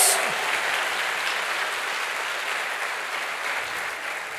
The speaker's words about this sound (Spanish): ¿Cuántos dicen amén? Dele fuerte ese aplauso al que vive por los siglos de los siglos.